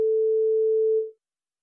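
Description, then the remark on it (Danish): A single steady telephone tone, like one beep of a busy signal, sounds clearly for about a second and then stops, leaving silence. No one speaks. “Jamen, det var øh, lige telefonen, der...”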